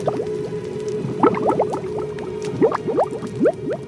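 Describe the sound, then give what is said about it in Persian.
Thick liquid boils and bubbles steadily, with clusters of rising pops and gurgles bursting over a continuous low simmering hum, moderately loud. “هنگامی که در جهنم افکنده شوند صدای روبنگیزش را بشنوند در حالی که پیوسته می جوشند”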